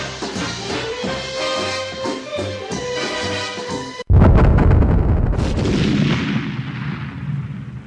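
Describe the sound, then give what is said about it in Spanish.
Upbeat music plays for a few seconds, then is abruptly cut off by a loud explosion effect of a self-destructing tape, whose deep rumble lingers and slowly fades, with a second crack shortly after. “Esta cinta se autodestruirá en 5 segundos.”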